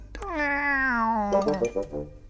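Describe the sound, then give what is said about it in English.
A person's voice imitates a cat's meow: one long, drawn-out, whiny cry that slowly falls in pitch, then breaks into a few shorter wavering sounds at the end, fairly loud. “Meow.”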